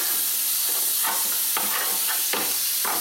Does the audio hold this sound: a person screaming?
no